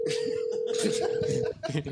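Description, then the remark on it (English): A steady telephone ringing tone of an unanswered phone call drones for about a second and a half, then cuts off, with busy background voices and noise underneath throughout. “I don't need to hear this phone call coming up. Well, Alex isn't answering.”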